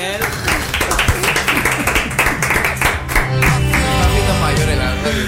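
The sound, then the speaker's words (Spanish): A small group claps in a quick, uneven patter for several seconds, loud and steady, with voices calling out and laughing over the applause. “Por favor, Aunque seamos nosotros, un aplauso, por favor, para mí.”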